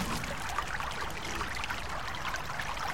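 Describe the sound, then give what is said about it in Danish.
A river rushes steadily, its churning water making a continuous, dense wash of sound with no break, even in loudness throughout, with no voices present. “Strømmen river ham med ned ad floden, og han forsvinder under overfladen.”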